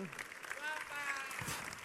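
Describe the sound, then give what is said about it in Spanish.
An audience applauds steadily for about two seconds, a dense, even clatter of many hands with some voices and brief cheers rising through it. “Forte aplauso.”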